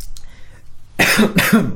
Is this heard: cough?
yes